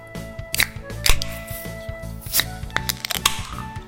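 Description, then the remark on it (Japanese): Several sharp clicks and pops from German beer bottles being opened, scattered irregularly over a few seconds, with faint handling noise and a low background hum between them. “というわけでじゃあ開けましょう。”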